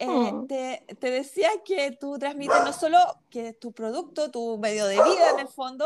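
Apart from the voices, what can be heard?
dogs barking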